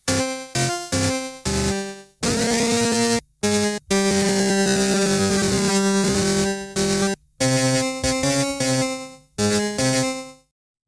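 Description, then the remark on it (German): The init patch of a Roland FM synthesizer, with an extra modulation that Roland adds to the init sound, plays loud, buzzy harmonic notes: short staccato stabs, then long sustained tones whose pitch wavers with the modulation, with no voices. “Äh, Roland hat hier bei dem Init Sound noch irgendeine Modulation extra mit drauf.”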